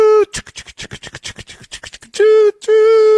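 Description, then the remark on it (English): A loud steam train whistle blows, gives way to a quick run of rhythmic chugging, then sounds again in two more blasts, one short and one longer. No one talks. “Is that the excuse train coming in the Eagles locker room right now?”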